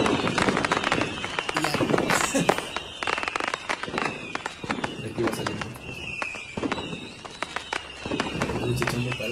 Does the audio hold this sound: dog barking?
no